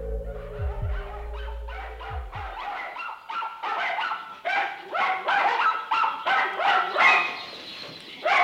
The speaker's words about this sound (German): Die Zwinge eines Hundezüchters sind keine angenehme Nachbarschaft. Man kann Rassehunden alles Mögliche beibringen, nur das Bellen kann man ihnen nicht abgewöhnen. Die Besitzer der Hundefarm wollten das auch keineswegs.